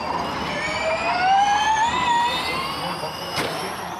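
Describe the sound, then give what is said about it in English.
A Formula E electric race car's high, futuristic whine climbs steadily in pitch as it speeds past, loud, over a steady wash of background noise, with a brief sharp burst near the end. “It's an electric race car, and Formula E races are pretty intense.”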